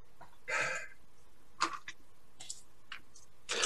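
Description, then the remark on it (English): A run of short, sharp sneezes, one fuller burst followed by several quicker, breathy ones spaced across a few seconds, with no talking. “Bless you. Bless you.”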